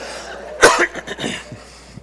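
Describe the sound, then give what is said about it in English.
A man coughs: one sharp, loud burst followed by a few quieter, raspy hacks over about a second, then quiet. “oh, he's coughing. Hope he gets over it soon.”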